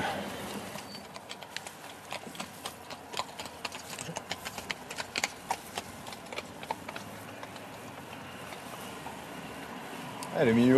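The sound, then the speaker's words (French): Hooves of two horses pulling a carriage clip-clop on hard pavement in a steady stream of sharp knocks as the carriage rolls past a cyclist in an urban area, before someone starts speaking at the very end. “Une calèche avec deux chevaux que je viens de croiser.”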